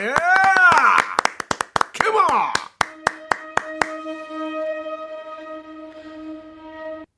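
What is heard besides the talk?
audience applause and cheering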